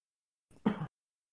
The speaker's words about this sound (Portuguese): O negócio é então... é tossir pra melhorar. é. É, é verdade. Cada tossida melhora. Melhora o som, né?